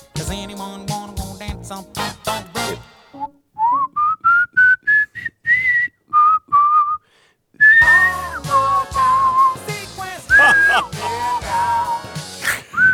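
A person whistles a flowing, jazzy melody of sliding, sustained notes, starting alone in short phrases and then continuing over a fuller instrumental backing.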